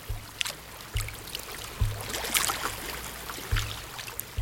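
Gentle water lapping against a wooden jetty on Lake Constance between Lindau and Bregenz, with soft periodic low thumps every second or so and a light splashy trickle, calm, no voices.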